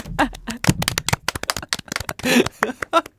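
A burst of sharp hand claps from the speaker, quick and slightly uneven, continuing for a few seconds with brief pauses between flurries.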